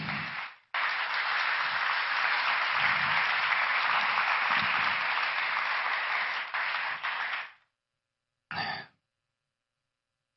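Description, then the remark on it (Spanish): An audience applauds the king, Jesus, in sustained applause, a dense wash of many hands clapping for several seconds before it cuts off, followed by a short final burst. “Ah, démosle un aplauso al rey, hermano.”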